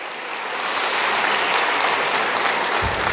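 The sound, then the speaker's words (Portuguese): An audience claps steadily for Alfabetiza Juntos SP, a dense, even wash of many hands that swells in the first half-second and holds loud throughout, with no voices over it. “Mais palmas para Alfabetiza Juntos SP.”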